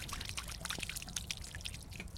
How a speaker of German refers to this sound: Da müssen wir ein großes Loch buddeln, da kommt dann auch eine Pflanze rein. Und gießen ist natürlich das Allerschönste. Man kann ja erstmal richtig viel Wasser drüber gießen.